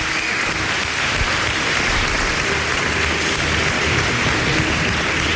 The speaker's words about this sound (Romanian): Oricum, cine scrie carte, lumea te vede și încă o dată aplauze pentru Gică Hagi. Felicitări.